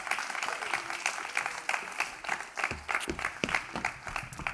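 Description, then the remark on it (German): An audience claps steadily throughout for the speaker's two children as they come on stage, a dense, crackling wash of many hands with no voices standing out, holding a fairly even level from start to finish. “Das sind meine Kids, geben wir denen mal Applaus.”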